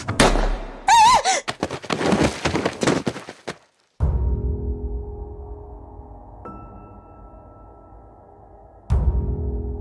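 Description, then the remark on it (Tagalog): A loud gunshot from a gun fought over in a struggle cracks out after a brief silence and rings away slowly, with a second sharp shot at the end; a frantic scuffle and a shrill cry come before it. The shot kills the owner of a resort. “Napasigaw ako, Sir Jupiter, nang pumutok ang baril”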